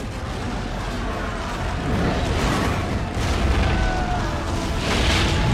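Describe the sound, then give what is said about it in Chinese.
A gunpowder explosion in a film scene starring Dwayne Johnson, set off when a torch lights the explosives, roars as a loud, sustained wash of deep rumbling and crackling noise that holds steady for several seconds without a sharp single bang. No one speaks. “那一边小马贼呢，虽然被抓了，但是紧急关头拼了命的抢过火把，点燃了炸药。”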